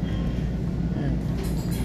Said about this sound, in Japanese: 今帰りでございますというのがうんと次の次になるとですねこの電車に乗らなくなるので電車からの録音というか放送というかこれはもう今回で最後ですよおそらく